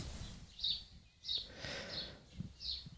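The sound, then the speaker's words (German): Outdoor birdsong with several short, bright chirps repeating at irregular intervals over a soft low rumble of background noise, fairly quiet, with no one talking. “Ich glaube, ich lasse heute einfach all diese ganzen Vogelgezitscherpausen drin.”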